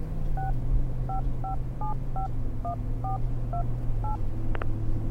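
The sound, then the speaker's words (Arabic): A quick run of about ten phone keypad tones, each a short two-pitch beep in a steady rhythm, as someone dials a phone to call a person again, over a low background hum, ending with a brief click. “راح اتصل على اسلام مره ثانيه واتاكد منه”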